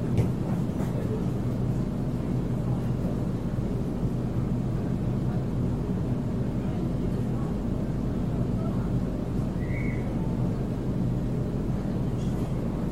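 A commuter train heading into Sydney city from Redfern station rumbles along at a steady, loud, droning pitch, the low roar of the carriage continuing unbroken throughout with a brief faint squeal partway through.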